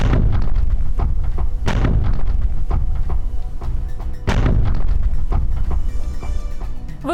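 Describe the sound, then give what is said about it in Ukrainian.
Three heavy explosions of homemade devices go off one after another at 2:40 at night in October 2010 in Kirovograd, central Ukraine, at the regional prosecutor's office, the appeal court and the district police department, each a loud deep boom rising out of a constant thick rumble, with no voices. “У тоді ще Кіровограді, практично у центрі України, один за одним лунають три вибухи.”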